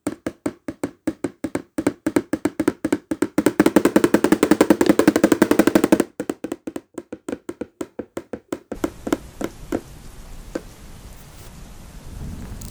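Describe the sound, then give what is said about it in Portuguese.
A spoon taps on a plastic container in crisp hits that speed up into a dense, rain-like patter, then slow again to sparse, scattered taps, imitating the sound of rain from light to heavier. No one speaks. “Você pode aumentar e diminuir a velocidade das batidas da colher nesse pote de plástico.”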